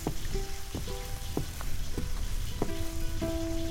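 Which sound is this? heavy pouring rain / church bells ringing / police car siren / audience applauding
heavy pouring rain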